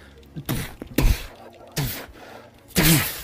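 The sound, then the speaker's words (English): A voice imitates a trapdoor bursting open, making four sharp, breathy bursts, each a forceful rush of air with a rough vocal edge, fairly loud. The last burst is the strongest. “and the trap door sort of bursts open, and Gibbon sticks his head up.”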